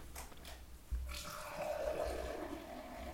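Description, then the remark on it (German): Beer pours into a glass in a steady, gurgling gush that starts with a soft thump, then turns into a continuous foaming fizz with a rising pitch as the glass fills. No one speaks. “Ich zieh mir jetzt ein Bier, ist mir zu blöd. Und das wird jetzt aber laut.”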